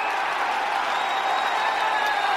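A crowd applauds and cheers in a steady, dense wash of clapping that holds at an even loudness for a couple of seconds, with no one speaking.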